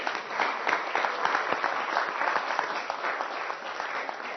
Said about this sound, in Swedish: ska vi ge Jesus en applåd